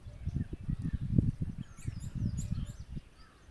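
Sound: birds chirping in background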